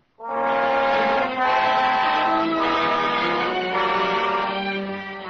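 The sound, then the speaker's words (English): A train at a railroad station sounds a long, loud horn that holds steady for several seconds over a continuous rumble of rail noise, with no one talking. “After Johnson gets back, you and I will get out to the railroad station.”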